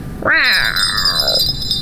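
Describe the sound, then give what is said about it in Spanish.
A single loud, drawn-out meow from Dina, a female cat, late at night, rising quickly and then sliding down in pitch over about a second, with a faint steady high-pitched tone in the background. “No, gata, es muy noche, te puedes enfermar.”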